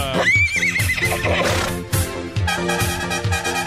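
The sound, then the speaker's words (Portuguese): A novelty horn blares a high, wavering horse whinny at the start, then fades into loud, steady rhythmic music with a thumping beat running throughout. “Buzina que é top!”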